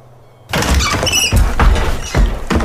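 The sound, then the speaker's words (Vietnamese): After a near-silent moment, a window's latch suddenly gives way and it bursts open in a strong wind with a loud bang, followed by squealing hinge creaks and several heavy knocking thuds against a rushing, noisy background. “Cánh cửa sổ bỗng dưng bật chốt Gió lùa mạnh mang theo hơi lạnh sộc vào trong căn phòng của hai vợ chồng”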